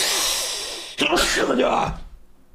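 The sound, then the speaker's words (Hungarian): A single loud sneeze bursts out after a second of breathy hiss, followed by a short voiced trailing sound that fades away. “Kedves egészségedre.”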